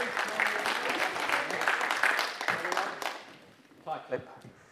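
A group gives a round of applause, a dense, steady patter of many hands clapping for about three seconds before it fades out, followed by a few faint murmurs.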